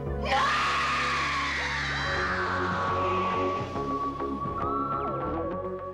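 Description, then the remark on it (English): A woman lets out a loud, sustained scream that blends into a burst of music, her cry held over the swelling theme for several seconds before fading. “Basically, Nerys Hughes does it brilliantly in episode two of Kinda, and she actually screams oh, exactly oh, okay. in line with it and does it perfectly.”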